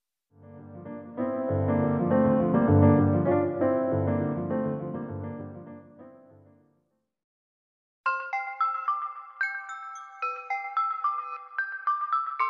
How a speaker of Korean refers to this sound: 알람이 울렸다. 더듬더듬 휴대전화를 찾아 알람을 껐다.